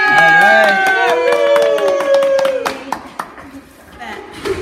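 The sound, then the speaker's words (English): A small crowd of sports fans at Town Hall on Halloween cheers and whoops loudly while clapping for people in costumes, several voices shouting together over steady applause that thins out into scattered claps toward the end. “So we like to cheer on the people who come down in their costumes.”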